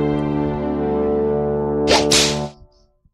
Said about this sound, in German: Dann kommt die Peitsche gleich. Du äh, warst ultra verwirrt. Ich wollte dich verwirren mit der Peitsche.